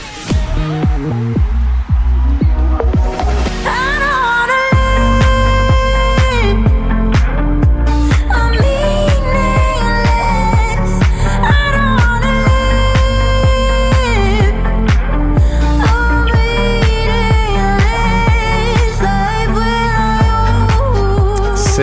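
A woman sings a melodic pop song with her own lyrics, from an album, over full band backing, with a steady pulsing beat and deep bass notes, loud and continuous throughout.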